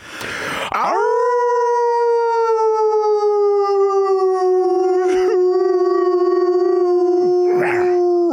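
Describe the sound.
Human voices imitate a wolf howl while drinking Grevens cider, one long sustained rising-then-steady note held loudly for several seconds after a brief noisy burst, with short breaths or murmurs breaking in near the end.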